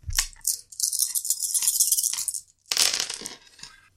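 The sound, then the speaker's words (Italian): Dice clatter and rattle across a hard tabletop in a busy, clicking burst during a tabletop role-playing game, then after a brief pause a second quick clatter of tumbling dice, fairly loud. “Quindi riprendimi i dadi.”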